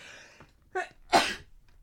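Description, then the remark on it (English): A single loud sneeze: a sharp breathy intake, a brief voiced "ah", then an explosive noisy burst, ending in quiet. No talking. “sorry, I'm going to sneeze for a sec”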